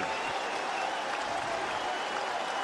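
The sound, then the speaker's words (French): A baseball stadium crowd of more than 17,000 rises to its feet, cheering and applauding as Jason Donald comes up, in a continuous, dense roar of clapping and voices that holds steady for the whole moment, with no single voice standing out. “It's Jason Donald and a crowd of better than 17,000 to its feet.”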